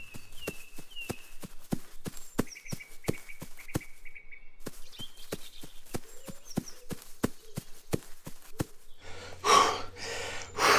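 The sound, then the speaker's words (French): Quick, steady footsteps through a large garden with birds chirping in the background, ending in a few loud, heavy panting breaths, as after running. “si mon jardin était pas si grand, je serais moins essoufflé.”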